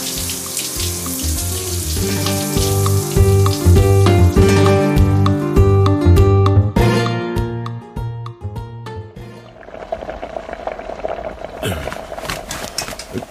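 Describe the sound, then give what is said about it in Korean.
Running water pours steadily, partly beneath a rhythmic musical background, then continues as a clearer, even hiss of a shower spraying near the end, as someone takes a long, slow shower in a bathroom attached to a bedroom. “나는 천천히 오랫동안 샤워를 했다.”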